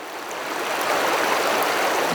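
Water rushes steadily along a stream, a dense, even hiss and babble that stays fairly loud throughout, with no voices.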